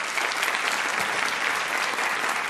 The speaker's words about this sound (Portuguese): Para conversar sobre as ideias de Betinho e sua possível e desejada sobrevida, recebemos hoje, por favor, aplaudam o filho dele, Daniel de Souza.